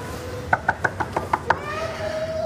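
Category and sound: household object, knocking on a door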